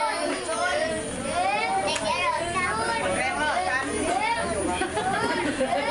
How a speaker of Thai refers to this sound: นี่เป็นบรรยากาศของเด็กๆที่กำลังสีข้าวอยู่นะคะ สีข้าวคืออะไร สีข้าวคือการทำให้ข้าวออกจากเปลือกใช่ไหมคะ